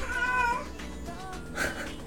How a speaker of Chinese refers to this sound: 我是不是应该把我家猫抱出去？ 你家猫说：“我也要录音。”